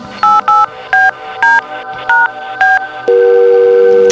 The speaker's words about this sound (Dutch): Je kunt hem gerust eens bellen. Ik belde.